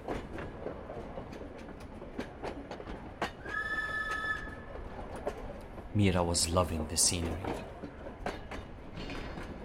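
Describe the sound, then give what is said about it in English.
A train rumbles steadily along the tracks while someone talks over it. A short whistle sounds partway through, and a louder, harsh squealing blast follows soon after as the train brakes abruptly and its wheels grind on the tracks. “When the train suddenly whistled loudly and hit the brakes abruptly, she almost hit her head on the front seat and the loud squeals of the train wheels grinding on the tracks were unbearable to her ears.”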